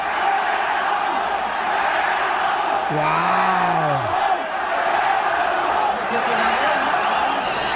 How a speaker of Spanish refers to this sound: los gritos no se hicieron esperar, pero no fue de los aficionados del Correcamino, sino de las mismas aficiones de las Chivas que necesitaban fuera voy, fuera voy.